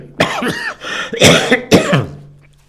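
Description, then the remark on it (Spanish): A loud fit of coughing: several harsh, raspy coughs in an uneven burst over a couple of seconds, with a throaty, wheezy edge and no speech. “yo no tengo intención y esta tos se quita.”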